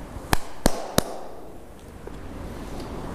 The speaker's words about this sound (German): So, hoffe, der Empfang hält jetzt durch unter der Brücke. Man hört es ein bisschen hallen. Ich klatsch oh, mal.